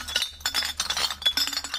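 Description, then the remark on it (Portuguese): Glass bottles clink and knock against each other in a busy, irregular clatter, with a steady low hum underneath and no voices. “Ao contrário do plástico, o vidro não tem, ou melhor, não tinha qualquer valor até aqui para quem o apanhava e ia entregar ao ecocentro da Macaneta.”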